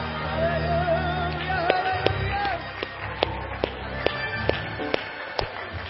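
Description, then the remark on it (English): An audience claps hands together in praise of the Lord during worship, in a steady, rhythmic beat, sharp crisp claps landing in unison about twice a second over a low murmur and sustained musical tones. “Clap your hands unto the Lord, everybody.”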